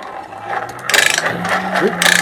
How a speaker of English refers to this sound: Oh yeah, that's not a good sound. That very, yeah, that thing purrs like a kitten. Uh, so and then hacks yeah. um, the blower is a hand crank blower, and it's one of the earlier hand crank blowers that does